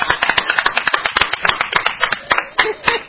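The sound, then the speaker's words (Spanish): Applause from a group welcoming an arriving guest: a steady, dense patter of sharp hand claps, fairly loud and irregular in rhythm, continuing for about three seconds with no one talking. “Llegó para Homero Carabajal Carpena. Un aplauso.”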